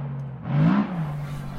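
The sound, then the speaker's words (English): A racing car engine at the Malaysian Grand Prix revs, its droning tone rising sharply in pitch and loudness over half a second before settling into a steady hum. “need to watch something very gentle with no loud noises or sudden dramas. Oh, perfect. The Malaysian Grand Prix.”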